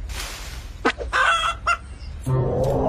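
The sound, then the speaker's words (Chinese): A cartoon chicken called Gugu Ji clucks in a few short, irregular bursts, bright and fairly loud over a steady hiss of background noise, with no talking. “哦，咕咕鸡，今天的天气多适合去溜滑板车啊！”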